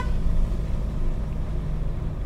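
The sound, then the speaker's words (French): A car pulls in to park in front of the old door of a wine cellar, a large wooden arch, at a stone farmhouse; its engine a steady low rumble that holds at an even level throughout, with no voices present. “Là, on se gare devant l'ancienne porte euh, du caveau en fait.”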